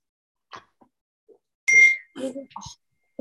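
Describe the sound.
A single bright laptop notification chime for an incoming message forwarded from a phone rings out with a clear sustained tone, fading as a person starts talking over it; a few soft clicks and rustles come before.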